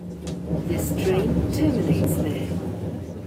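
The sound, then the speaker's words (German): A packed train from Munich rumbles steadily with a low, constant hum as it arrives at Garmisch-Partenkirchen station, while many passengers, including skiers with luggage, chatter in a busy murmur and brief higher hisses and squeals cut through. “Nach knapp eineinhalb Stunden in der proppenvollen Bahn von München kommen wir am Bahnhof Garmisch-Partenkirchen an.”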